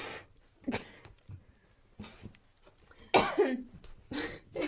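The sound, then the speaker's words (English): About three short, throaty burps erupt, separated by brief pauses, with the last couple louder and rougher than the first; no talking in between. “I have to burp.”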